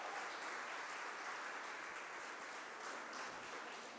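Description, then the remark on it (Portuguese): A church audience applauds Jesus during a sermon, a dense, continuous wash of many hands clapping at an even loudness for the full four seconds, with no voices standing out. “Você que chegou aqui, pode aplaudir Jesus, você é um filho de Deus.”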